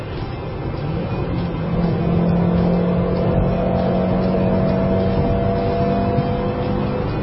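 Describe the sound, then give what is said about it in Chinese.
A small SUV with a small-displacement engine and manual transmission revs up as it accelerates after a downshift, a steady droning hum rising slightly in pitch over about seven seconds, fairly loud and continuous with road noise underneath and no talking. “不过刚才我退档之后加速，你们也能听到它的声音，稍微有一点点。”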